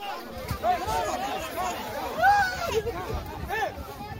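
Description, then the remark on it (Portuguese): A dense crowd of migrants, mainly Haitians, clamors, many voices overlapping in a continuous hubbub, with a few louder shouts rising above the babble as they break through a police blockade and cross the border from Acre back to Peru. “documentou o momento em que imigrantes, principalmente haitianos, furam o bloqueio policial e atravessam a fronteira para voltar para o Peru”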